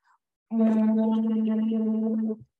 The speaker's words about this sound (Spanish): Sopla por la pajita, moviendo el agua, sopla, no sorbes, sopla diciendo, por ejemplo, en tu caso, la vocal A. Ya con entrenamiento haríamos más cosas. Suena así.